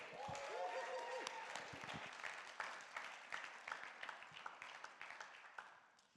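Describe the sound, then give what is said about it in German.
Audience applause for a speaker being introduced: a dense, steady wash of many hands clapping, with sharper individual claps standing out and the sound gradually thinning toward the end. Faint voices and a cheer rise briefly near the start. “Also gebt ihm mal einen großen Applaus, komm on.”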